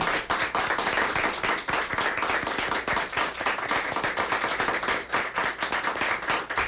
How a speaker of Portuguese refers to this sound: seja uma salva de palmas de todos que fazem a Band News FM Manaíra.